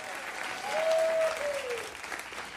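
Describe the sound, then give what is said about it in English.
A crowd bursts into sustained applause, clapping their hands for God, many hands clapping densely together, swelling slightly in the middle. A faint tonal whoop or whistle glides briefly through the clapping. “If that sounds like you, let God hear your hand clap tonight. Clap your hands, all ye people.”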